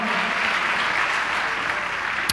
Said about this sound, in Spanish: Dale un aplauso a Dios, ponte de pie, amado hermano, el tiempo se ha acabado.